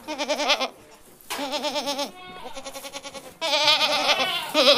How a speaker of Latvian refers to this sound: Jūs tikko dzirdējāt audzētavas divas kazas, ragaino iemītnieku,